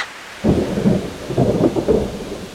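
After a brief quiet moment, a steady rush of rain begins, mixed with deep rolling rumbles like thunder, fairly loud and continuous to the end.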